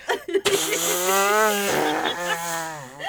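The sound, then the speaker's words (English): A voice imitates a grandmother's long, drawn-out walking fart in a quiet Hallmark card store: a loud, buzzy, sustained tone that wavers in pitch, briefly breaks midway, then resumes and curls upward at the end. “my grandmother in this quiet as fuck Hallmark just walks by and lets out the loudest walking fart.”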